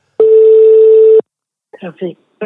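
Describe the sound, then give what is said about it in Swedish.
A single steady, loud telephone ringback tone lasting about a second as an outgoing call to a traffic office rings, followed by a voice answering and speaking over the line. “Så att jag ringde upp eh, trafikkontoret idag för att få en liten förklaring hur de tänker kring det här.”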